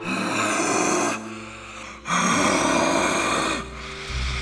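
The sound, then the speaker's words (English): Loud rasping and hissing from a female creature, with guttural growls that swell in two long harsh bursts separated by a brief quieter breathy pause, then rise again at the end. “That was when the sounds came forth rasping, hissing, guttural, savage.”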